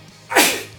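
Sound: sneeze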